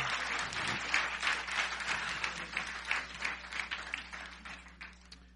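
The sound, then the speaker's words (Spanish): A crowd applauds steadily for the presence of the Lord, many hands clapping in a dense, crackling wash that holds for several seconds before easing off slightly toward the end. No one speaks. “How many can give him a round of applause?”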